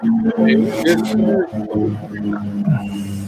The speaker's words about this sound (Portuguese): Passou o avião. Passou o avião não deu nem para ouvir.